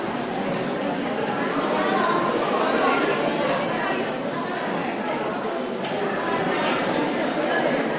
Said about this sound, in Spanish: Bueno, son los sonidos de esa iglesia de la Purísima Concepción.